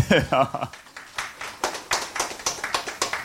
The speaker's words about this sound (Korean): 여러분 어, 모처럼이니까 박수 한번 다시 부탁드립니다.